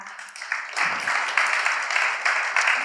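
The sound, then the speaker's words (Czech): An audience applauds once more, many hands clapping steadily in a dense, continuous wash that swells slightly after the first second and holds at an even, fairly loud level. “A, tak to chce potlesk ještě jednou.”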